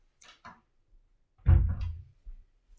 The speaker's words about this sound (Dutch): Eh, ik wacht heel even omdat de deur weer open gaat.